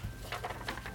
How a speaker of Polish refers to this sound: Dźwięk wysłania postu lub wiadomości prywatnej to jest kolejny dźwięk i brzmi tak.